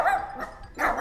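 dog barking

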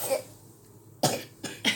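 cough

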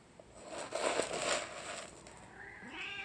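cat meowing

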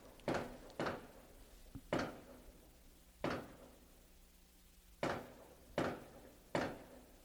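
firecrackers going off outside

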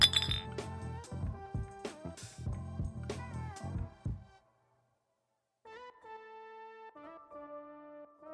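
glasses clinking

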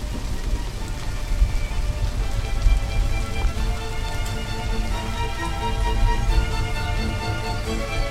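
heavy rainstorm

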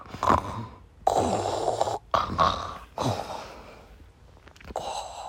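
loud snoring

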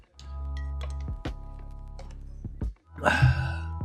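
drinking water

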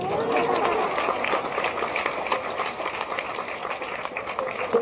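audience applause

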